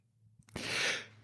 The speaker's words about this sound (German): Gesundheit. Putz dir das Näschen, mein Häschen.